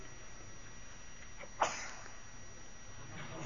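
A single short, fairly soft sneeze bursts out partway through against a quiet background hum with no talking.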